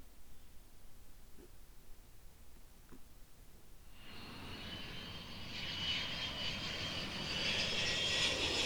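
After a few quiet seconds, an airplane engine roars up and grows steadily louder, a broad rushing drone with a high whine on top that keeps building to the end.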